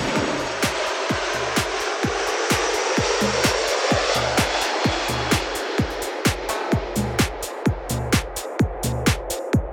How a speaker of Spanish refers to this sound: Llegamos, avión, baja el avión. Uh, uh, uh, baja el avión. Esos malditos aviones, cómo se mueven.